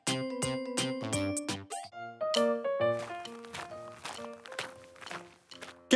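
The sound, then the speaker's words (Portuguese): Quick, evenly spaced footsteps patter along at a running pace, fairly loud, as someone runs to the bus stop to meet Drica and go to the park, layered over bright tonal music that continues throughout. “Vou correndo encontrar a Drica no ponto de ônibus para irmos ao parque.”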